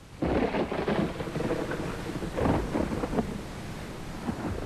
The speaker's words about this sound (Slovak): Na mori sa zrazu strhla taká búrka, že sa vlny prevaľovali cez loď.